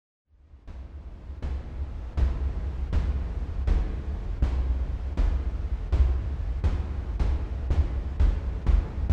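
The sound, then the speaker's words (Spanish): A steam locomotive chugs steadily, its loud puffs of exhaust arriving in an even rhythm of about a dozen chuffs over a deep continuous rumble, with no voices. “Una locomotora a vapor.”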